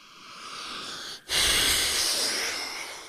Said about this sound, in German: Gott, war das ein langes Schnaufen.